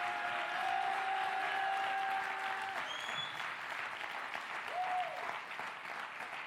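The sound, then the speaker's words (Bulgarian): An audience applauds steadily throughout, a dense, even wash of many hands clapping at a fairly loud level, with a few brief held tones and rising calls poking through the clapping. “О, ако ръкопляскаш, ръкопляскаш, като че не вярваш.”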